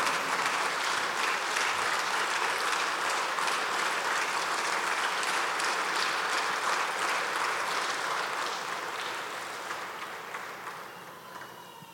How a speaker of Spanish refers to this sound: Ponte de pie, por favor, y vamos a orar y dale el mejor aplauso que tú tengas esta mañana.